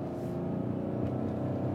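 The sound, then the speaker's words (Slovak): A car engine drones loudly and steadily, its throaty rumble holding without pause. The exhaust, raspy from being drilled with a drill bought at Lidl to give a sporty sound. The car has a 34-litre tank and winter tyres. No voices are heard. “kúpil vrtačku v Lidli za 18 eur a navrtal si do výfuku, aby mal športový zvuk”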